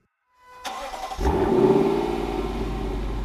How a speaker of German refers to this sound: Lexus LC500 wirklich die Überraschung. Absolut krankes Teil. Ey, das klingt. Sauger V8 ist immer doch irgendwie immer noch am besten.